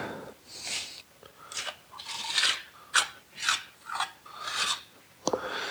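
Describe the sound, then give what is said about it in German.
Filler putty being spread and scraped in a series of rasping strokes, roughly eight swipes in irregular rhythm, with no talking. “Ich bin aber mit der Spachtelmasse jetzt mehr oder weniger auch durch.”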